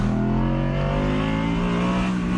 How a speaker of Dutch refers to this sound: Dendert het uitlaatgeluid van die V10 van die rotswanden af. Het is waanzinnig.